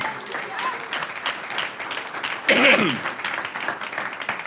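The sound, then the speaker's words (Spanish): A church audience claps steadily in a dense, sustained burst of applause to the Lord, with a brief louder swell of shouting or cheering voices rising over the clapping partway through. “Un aplauso al Señor.”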